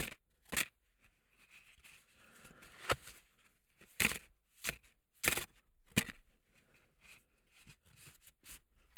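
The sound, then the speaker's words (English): A deck of playing cards is given a good shuffle, a series of sharp riffling bursts at irregular intervals with quiet gaps between them. “I'm going to shuffle the cards now to make sure we have a completely unique deck of cards for the talk down tonight.”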